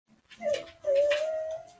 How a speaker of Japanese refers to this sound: 犬が泣いてますけど。